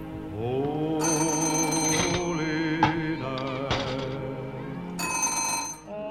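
A telephone bell rings in bright, metallic bursts, with a pause between rings, over a sustained tonal musical background. No one speaks.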